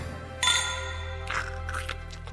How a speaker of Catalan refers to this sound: ja hem brindat